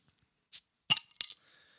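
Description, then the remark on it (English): Glasses of Dunkel, a Munich-style brown lager from the Kansas City Beer Company, clink together in a toast, a soft brush and then two quick knocks, the second leaving a brief bright ring that fades. No one speaks. “They're Dunkels, so hope you're drinking one. Cheers.”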